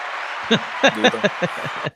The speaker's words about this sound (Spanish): Oye, este aplauso es para ti. Por favor, un aplauso.